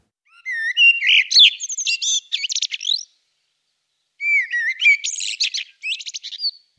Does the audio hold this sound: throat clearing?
no